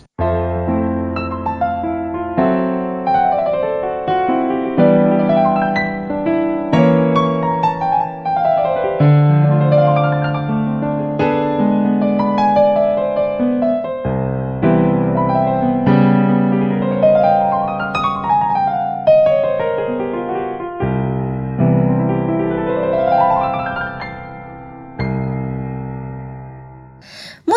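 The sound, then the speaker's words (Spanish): A piano plays alone for nearly half a minute, ringing chords and rippling arpeggios rising and falling, each note struck clearly and decaying, at a steady, fairly loud level. “Efectivamente, el instrumento era el piano. Y suena algo así.”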